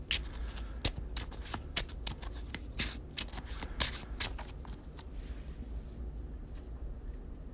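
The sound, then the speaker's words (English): A deck of playing cards being shuffled during a card game, with a card shuffled back into the deck: a rapid run of crisp riffling clicks and flutters that thins out near the end, with no voices. “I'm gonna shuffle the Lone Wolf back in because right now I'm kind of like not getting a lot of action with the Lone Wolf.”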